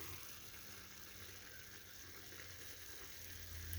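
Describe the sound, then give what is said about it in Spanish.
Liquid bubbling and sizzling in a cooking pot with cubes of breaded cutlet, onion and plenty of tomato, a steady, quiet crackling hiss that holds evenly throughout and swells slightly at the end, with no voices. “cubos de milanesa con cebolla, bastante tomatico, líquido que pueden escuchar burbujeando, un ají dulce y un toquecito de adobo y salsa de ajo, ¿ok?”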